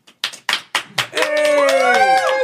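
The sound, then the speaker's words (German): A handful of sparse claps, about five in a slow ragged rhythm, like a very small audience of just a few people, then voices break in and carry on talking over the end. “dann kommen wir nochmal rein und die klatschen, als wären rein. sie fünf Leute”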